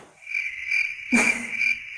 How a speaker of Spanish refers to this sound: Ni los grillos te creen.